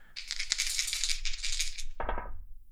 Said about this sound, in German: Ich bitte darum, nochmals zu würfeln.